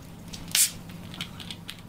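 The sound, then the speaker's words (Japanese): A sharp fizzing hiss rises briefly as carbonated water is poured onto the freshly squeezed juice of two yuzu, then settles into faint scattered crackles of bubbles over a low background hum. “2つ分絞ってかなり果汁が出てきました、はいうわ柚子の香りに包まれてるまずは炭酸でそこそこに”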